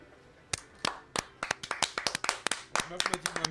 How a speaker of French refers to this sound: Et c'est sur ces applaudissements, voilà, ah sur ces applaudissements, chers auditeurs, que nous allons vous remercier pour nous avoir suivis pour cette 30e émission.